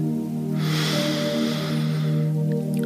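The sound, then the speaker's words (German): A single long inhalation through the nose during a guided breathing exercise, a soft airy hiss lasting about two seconds over a steady low background hum, with no talking. “Atme nochmal durch die Nase ein”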